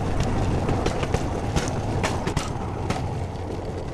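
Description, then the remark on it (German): A bamboo train rattles steadily along uneven, warped rails, the driver keeping his speed, a dense rumbling clatter punctuated by irregular sharp knocks and jolts, loud and continuous throughout with no voices. “Selbst dann drosselt er nicht das Tempo, wenn der Bamboo Train größere Verwerfungen im Gleisbett passiert.”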